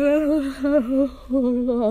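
A person yawns out loud up close, a long drawn-out voiced groan that wavers in pitch, dips briefly, then stretches on again until the end.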